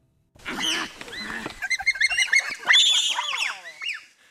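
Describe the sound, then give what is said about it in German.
A burst of high-pitched animal calls: shrill, overlapping squeals and hoots from several bonobos, rising and falling in rapid succession for about four seconds, fairly loud with no talking. “Ja, so klingen Bonobos.”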